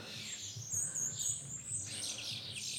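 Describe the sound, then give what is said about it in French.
Starlings singing, a busy mix of high chirps, whistles and rapid twittering layered over a low steady rumble, continuous and moderately loud throughout with no voices. “Si je me trompe pas, c'est des étourneaux, hein, mais.”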